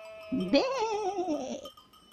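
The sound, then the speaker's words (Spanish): A single sheep, tended by shepherds at night on a hill near a town, lets out a long, wavering, fairly loud bleat while bells chime steadily in the background before fading into a quieter tail. “Esa noche algunos pastores estaban cuidando de sus ovejas en una colina cercana de la ciudad.”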